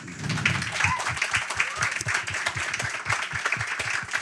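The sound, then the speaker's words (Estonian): An audience applauds steadily for the actors after a Forum theatre performance, many hands clapping together in a dense, continuous wash of sound at a fairly loud, even level. “aga igal juhul aplause näitlejatele.”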